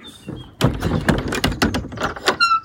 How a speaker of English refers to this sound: Lock that big door, and then the little door is on a timer. So when it goes dark, about half an hour after it goes dark, it'll close automatically, which keeps them safe overnight.